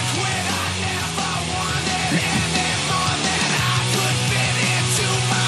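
A loud, dense rock song plays throughout, with distorted guitars and drums driving under a raw, screamed vocal that stays strained and forceful for the whole stretch.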